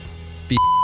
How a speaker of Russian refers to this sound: Так, э, что-то у меня в Дискорде какие-то сообщения вылетают непонятные.